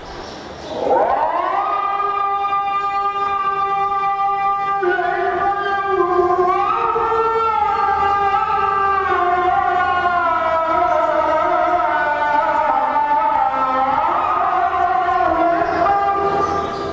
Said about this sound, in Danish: Her er det nu fra Istanbul, fra Den Blå Moské. Det kan man godt høre, fordi der kan godt høre, at det ikke var en arabisk muradin eller Myezin, som de kalder dem i Tyrkiet. Ja, du kan. Ja, ja, jo, fordi man kan høre det på udtalen.